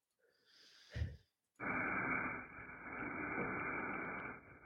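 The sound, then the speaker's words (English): A soft breathy rustle and a low thump, then a steady, loud scrubbing hiss from a Hybrid Athletics 360-degree barbell brush worked along a barbell, continuing without a break for about three seconds. “That's the sound of a 360 degree barbell brush by Hybrid Athletics.”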